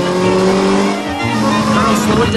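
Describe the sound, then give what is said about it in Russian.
A speeding car's engine revs loudly and steadily as it is driven too fast and the driver is urged to brake, its strained roar holding for a couple of seconds, with a hint of voices mixed beneath the engine noise. “Сбавьте скорость, полковник. Так слишком быстро. Полковник, тормозите.”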